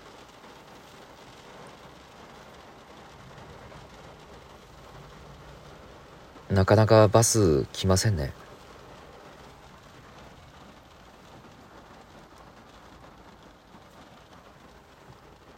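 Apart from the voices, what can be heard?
heavy rain falling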